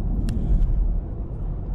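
A steady, loud low-frequency engine rumble runs throughout from a sand car being driven a little before 7 in the morning, with a couple of brief rattling clicks near the start.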